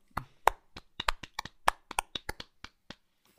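A short burst of applause from just one or two people: around fifteen sharp claps in an uneven rhythm, fading out after about three seconds, with no talking.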